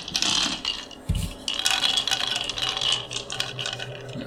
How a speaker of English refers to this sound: Right, so this is essentially an attack roll on the part of the hoofed one. He's going to roll four of the six bones.